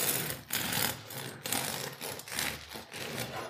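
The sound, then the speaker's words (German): A bread slicer cuts another slice of bread with a steady, rasping mechanical whir that surges and dips in a rough rhythm for a few seconds, fairly loud and with no voices. “So, ich mache noch eine Scheibe.”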